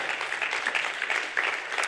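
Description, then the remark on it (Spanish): A crowd applauds steadily, with dense, continuous clapping from many hands that holds an even loudness for the full two seconds, sounding like an audience clapping together. “Lo que estamos, amén, del aplauso, aleluya.”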